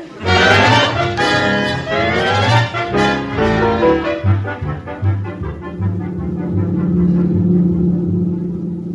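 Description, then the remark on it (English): A car drives along in the morning with a loud engine rumble, deep and steady, with a rougher burst of motor noise at the start before settling into an even drone. No one speaks. “Walter Denton's driving me down this morning.”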